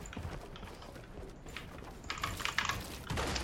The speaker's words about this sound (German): Ich, ich habe das Gefühl, ich weiß auch nicht, ich habe das Gefühl, meine Tastatur ist scheiße. Weil ich, drücke diese Knöpfe, ne? Ich mache halt so, dann drücke ich alle Knöpfe, aber es, es baut nicht das, was ich will und es liegt nicht.